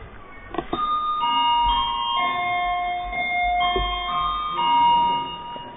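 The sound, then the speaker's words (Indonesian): An electric bell, set off by a pressed button, plays a tinkling, melodic chime of sustained tones that overlap and ring on for several seconds, clear, with no one talking over it. “Kepencet ya, kepencet. Iya, iya, ada tulisan bel ini, baru tahu saya.”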